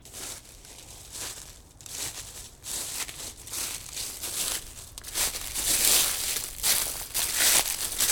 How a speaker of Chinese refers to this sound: 可是，正在这个时候，我突然听见身后的树林里传来一阵窸窸窣窣的声音，